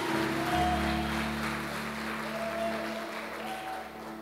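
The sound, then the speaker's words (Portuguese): An audience applauds the Lord in a steady, dense wash of clapping lasting several seconds, with a sustained low tonal hum beneath it and no one speaking. “Vamos aplaudir mais forte o Senhor que te lei.”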